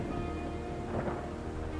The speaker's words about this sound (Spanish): Podía ver los relámpagos no muy lejos, más allá de las colinas cubiertas de lápidas. Fue acompañado del sonido de un trueno cuando lo vi.